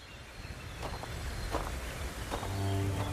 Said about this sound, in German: Neben dem Wind und dem Zwitschern der Vögel ist der Soundtrack dieser Reise vor allem das Knirschen meiner Schritte. Jeder Schritt bringt einem dem Ziel ein Stück näher.